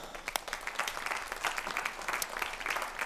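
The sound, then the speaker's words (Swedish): Audience applause for the worship team, a steady dense patter of many hands clapping with no voices, holding at an even moderate level for about three seconds. “Ska vi ge dem en applåd?”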